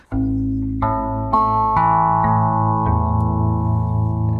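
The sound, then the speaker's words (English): Birds peck at seed spread over a zither on the ground, a board with six strings and a contact microphone, each irregular strike setting the strings ringing. Several twangy tones build up into a sustained metallic drone with no voices. “we spread seed over this, and when the birds peck on it, we get this kind of sound.”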